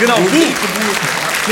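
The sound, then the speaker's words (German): A crowd at a stage show claps steadily in the background, a dense, even patter of many hands beneath a man's voice calling out over it. “jetzt nicht klatschen, das müsst ihr nicht.”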